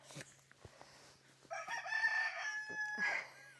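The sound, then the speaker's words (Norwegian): A rooster crows loudly, one long strained call rising and holding for about two seconds before trailing off, with faint background noise before it. “Og den ene hanen der, han galer altså da et døgn rundt, nesten, tror jeg.”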